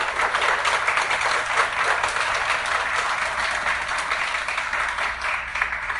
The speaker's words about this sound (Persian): تشویق کنید